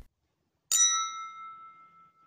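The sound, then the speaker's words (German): A single bright clink of glasses touching as friends toast aboard a ship, followed by a clear, high ringing tone that slowly fades away. No voices are heard. “Die Gläser klappern aneinander und alle schlucken einiges weg.”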